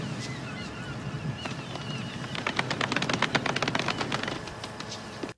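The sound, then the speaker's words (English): A soft golf clap: a small patter of light, quick hand claps swells for about two seconds and then trails off, over a steady low background murmur. “Golf clap?”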